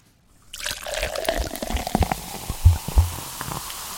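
Soda from a just-opened can is poured into a cup of ice with a steady liquid rush and dense, crackling fizz as bubbles rise, punctuated by a couple of clinking ice knocks near the end; fairly loud, no voices.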